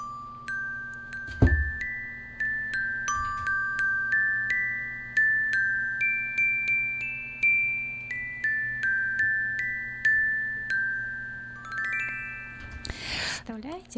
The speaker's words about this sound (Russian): одевает фартушек, садится за столик, и я ему даю металлофончик. И тогда он уже начинает играть, потом второй, третий, четвертый, пятый, шестой ребеночек, а потом уже я.